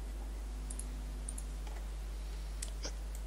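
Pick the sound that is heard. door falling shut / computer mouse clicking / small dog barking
computer mouse clicking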